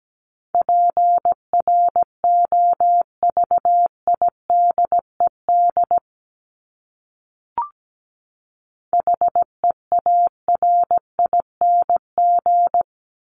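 Morse code at about 17 words per minute, sending English words from the top 1751–2000 most common words: a steady mid-pitched beeping tone keyed into dots and dashes, two bursts separated by a pause with a single soft click, no voices.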